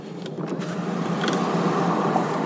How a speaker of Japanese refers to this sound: 4合目を過ぎてもういよいよ5合目に近づいてまいりましただいぶ標高が高くなって今2000何百メートルにいるのでちょっとエアコン切って窓を開けてみたいと思います